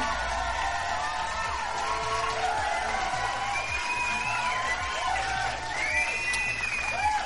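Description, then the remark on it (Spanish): A crowd applauds and cheers steadily for several seconds as the film ¿Conoces a Tomás? is introduced, with scattered whoops, shouts and rising whistles sounding over the dense, continuous clapping. “Un pinche aplauso.”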